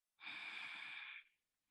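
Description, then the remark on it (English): A single long, steady inhalation lasting about a second, airy, with a smooth onset and a gentle fade at the end; no voices present. “Simply breathing in”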